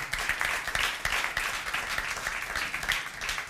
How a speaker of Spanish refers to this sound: Eh, le queremos dar un fuerte aplauso a la Biblia y la palabra que